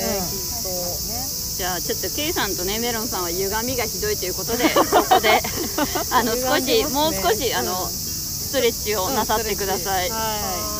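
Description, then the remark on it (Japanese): Loud, continuous cicada buzzing fills the background from start to finish, a steady high-pitched drone outdoors after a sudden turn to hot weather, while two people talk and laugh over it during a public recording. “セミなんかめっちゃ大きくなってないですかセミのね多分あのいきなり暑くなってきたから、ね、すごいちょっとセミの声と私たちの声どっちが入ってるかなっていうのは あるんですけども”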